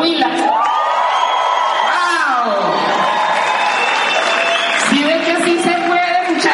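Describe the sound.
A crowd claps and cheers steadily, with voices whooping and yelling over dense, continuous applause that stays loud throughout.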